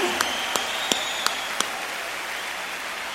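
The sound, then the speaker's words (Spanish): Applause from a rock concert audience in Mexico: a steady, hissing wash of clapping, with five sharp, evenly spaced claps standing out over the first second and a half. No one speaks. “Con un aplauso de toda la bola de cabrones, claro.”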